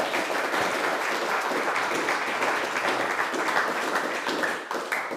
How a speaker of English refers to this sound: Another round of applause, please, for Sir Chris Hoy.